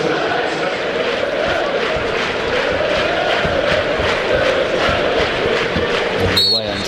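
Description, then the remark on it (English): A packed stadium crowd roars and cheers loudly and continuously after Mateta scores for Crystal Palace against Plymouth, a dense wall of voices that holds steady for several seconds without letting up. “sounds like a fun place to be and it will be now”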